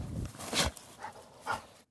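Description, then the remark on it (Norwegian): A search dog trained to find blood and semen sniffs with its nose in short, breathy bursts, showing where traces remain, with a couple of soft, high whimpers between the sniffs. The sounds come in a loose rhythm over about two seconds, with no talking. “Vi vet vel ikke hvor dette ender når det gjelder bruk av hundens nese.”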